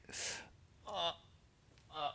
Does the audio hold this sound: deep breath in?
yes